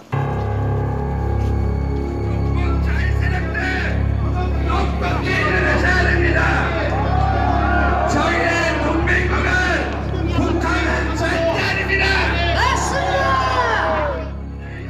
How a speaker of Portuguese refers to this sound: Em cima de um palco improvisado, este homem grita contra o novo presidente Moon Jae-in, do Partido Democrático de Centro-Esquerda.